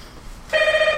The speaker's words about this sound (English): Oh, let's look at the door. Oh. that was a doorbell.